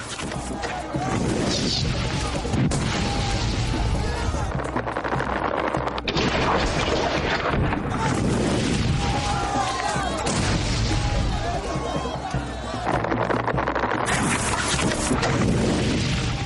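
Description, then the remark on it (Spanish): A sustained barrage of loud explosions and crashing impacts as discharges of Greek fire rain down on the crusader army, dense and rumbling for the whole stretch, with overlapping booms and a roaring, crackling wash that sounds like a battle under bombardment. “Las descargas de fuego griego empezaron a llover sobre el ejército cruzado.”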